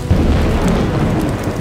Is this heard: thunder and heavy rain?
yes